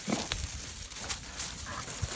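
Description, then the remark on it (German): A truffle-hunting pig named Buja snuffles and sniffs while searching for truffles, with short breathy bursts and low grunting thumps scattered over steady outdoor background noise; nobody speaks. “Und ihr Schwein Buja ganz sicher auch.”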